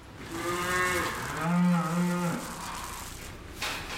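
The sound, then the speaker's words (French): A Normandy dairy cow lets out a long, drawn-out moo in a barn on a farm with 116 cow places, its pitch sliding and swelling midway, then fading into a quiet, faintly noisy background with no talking. “Donc la particularité des vaches normandes, c'est qu'elles ont des lunettes plus ou moins grandes.”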